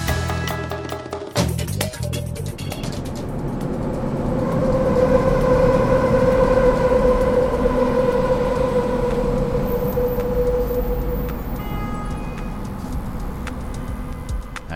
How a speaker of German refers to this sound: Die BerlinerInnen unter euch haben vielleicht gerade den Sound der U-Bahn erkannt. Den haben wir am Cottbusser Tor in Kreuzberg aufgenommen.